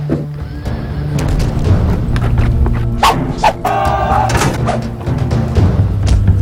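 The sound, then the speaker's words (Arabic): Stones from Saladin's catapults (mangonels) slam into a fortress in a series of sharp, irregular crashes, heard over a busy backdrop of whinnying horses and barking dogs. “اللعنة يأبى صلاح الدين إلا أن يشاركنا الحفلة بطريقته تابعوا الحفلة لن نترك لمداعبات صلاح الدين أن تفسد علينا حفلنا ولنعتبر مجانيقه جزءا من الإيقاع ليس أكثر”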